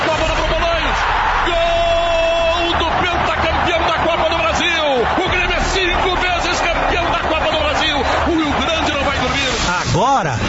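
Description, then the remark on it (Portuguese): A loud, continuous roar of Grêmio football fans cheering a title win, a dense crowd din with scattered yells and whoops rising above it throughout. “No ano passado, o Grêmio voltou a fazer a torcida vibrar com o título.”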